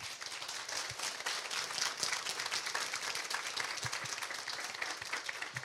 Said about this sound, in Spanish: Y si es verdad, vamos a darle un aplauso a Dios muy fuerte.